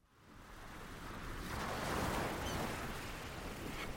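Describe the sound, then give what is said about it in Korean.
Steady wash of ocean surf on a beach, a broad hissing roar that swells gradually and stays continuous, with no voices present. “자기야, 나 바닷물에 발 담가도 돼?”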